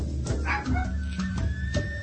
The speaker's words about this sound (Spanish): Y por aquí mi perrito ya está ladrando. Eso quiere decir que un muerto está cerca. ¿Sabían eso? ¿Alcanzan a escuchar a mi perrito?